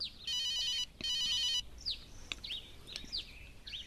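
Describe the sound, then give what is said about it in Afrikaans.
A mobile phone rings in two electronic trilling bursts, each about half a second, with chirpy bird calls sounding in between and after; moderately loud, no talking. “Jou selfoon. Waar het jy hom nou weer laat lê? Gaan jy antwoord nie?”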